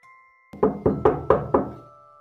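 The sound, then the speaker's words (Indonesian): Five firm knocks on a wooden bedroom door in a steady, quick rhythm, clear, with a faint steady hum in the background and no voices. “Pintu kamar Audi diketuk seseorang.”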